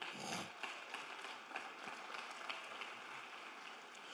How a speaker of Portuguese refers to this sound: Se você ama o Senhor, vamos dar um aplauso bem forte a Ele.